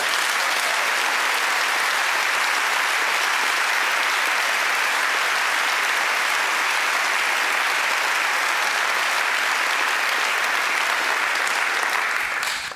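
An audience applauds steadily for about thirteen seconds, a dense, even wash of many hands clapping at a constant loudness, with no voices standing out, before it tapers off slightly at the end.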